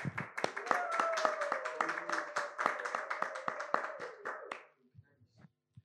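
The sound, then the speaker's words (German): A burst of applause after a DJ set on a live broadcast from Offenbach am Main, rapid overlapping claps, loud and steady for about four and a half seconds, with a sustained voice-like cheer running through it, then cutting off into near silence. “Geil, kompakt, Applaus.”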